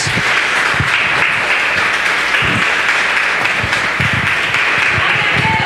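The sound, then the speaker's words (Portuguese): A crowd of worshippers applauds steadily for several seconds to glorify the name of the Lord Jesus, a dense, loud wash of many hands clapping with no one speaking over it. “Aplauda e glorifica o nome do Senhor Jesus.”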